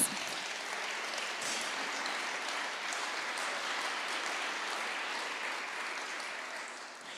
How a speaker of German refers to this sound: Gebt ihnen einen ganz großen Applaus.